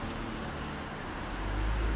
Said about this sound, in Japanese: すいませんね車とかちょっとうるさくて興奮して興奮したままにちょっと公園で撮ってるっていう感じです